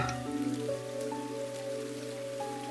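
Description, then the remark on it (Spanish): Steady rain falls as a constant soft patter, mixed with sustained low tonal drones that hold throughout, with no one speaking. “Te, como que camina hacia, hacia como uno de los bordes para que no llegue tanta lluvia.”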